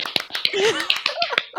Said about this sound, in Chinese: 觉得你很棒啊！快点帮他鼓掌。